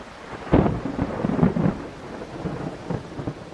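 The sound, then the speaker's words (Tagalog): A thunderstorm as a typhoon arrives, rumbling with a loud crack of thunder followed by rolling, uneven booms over a steady hiss of rain, with no voices present. “Nako, Ayan na yata yung bagyo.”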